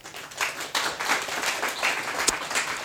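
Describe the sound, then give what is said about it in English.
An audience applauds the panelists of a panel on the Freedom of Information Act, a dense, sustained patter of many hands clapping at an even loudness for about three seconds, with one sharper clap standing out near the end. “So please give a round of applause to our panelists.”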